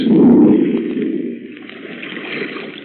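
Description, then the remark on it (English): Heavy churning water rushes and gurgles continuously, loudest at the start and then settling into a steady bubbling wash, as a ship makes its final plunge and sinks beneath the surface. “Look, it's sinking. By George, the final plunge. There she goes.”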